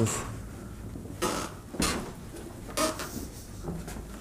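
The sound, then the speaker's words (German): Wooden floorboards of an old house creak and thump underfoot in a few separate bursts spread unevenly over a few seconds, with no one talking. “Aber auch hier die, die Dielen knarzen.”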